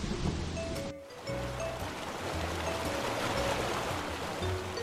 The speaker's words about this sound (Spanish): El agua de los ríos.